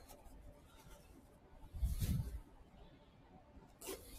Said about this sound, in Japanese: また、ちょっとチャック閉めます。